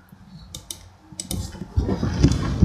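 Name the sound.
camera shutter clicking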